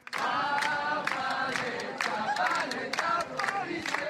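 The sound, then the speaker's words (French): A large protest crowd gathered in front of the courthouse in Aurillac, France chants feminist and anti-police chants in unison, loud and rhythmic, with voices rising in regular shouted beats roughly every half second, continuous throughout. “Drapeau décroché, brûlé, en marge du festival de théâtre de rue, la foule s'est réunie devant le palais de justice au son de chants féministes et anti-police.”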